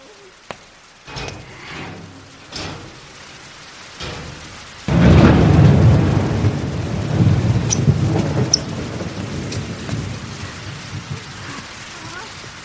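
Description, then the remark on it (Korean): Rain hisses steadily at first, then a heavy downpour surges in partway through with a deep, rolling rumble of thunder, staying loud and dense to the end, on the windy rooftop of an apartment building built on reclaimed seaside land. “아기 엄마, 이런 날씨에 우산도 안 쓰고 거기서 뭐해요?”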